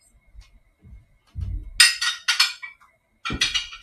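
Dishes clink and clatter as they're washed: a few dull low knocks, then clusters of bright, sharp clinks in two bursts, fairly loud, with no talking.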